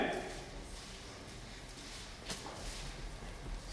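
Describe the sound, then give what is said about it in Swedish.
Many people in a church leafing through Bible pages at once, a soft continuous papery rustle with one sharper flick partway through. “älskar att höra det här rasslet. Mm. När folk sitter och bläddrar i sina bilar vet jag.”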